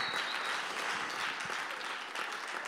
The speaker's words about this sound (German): Und ähm, ja, deswegen auch nochmal ein Applaus.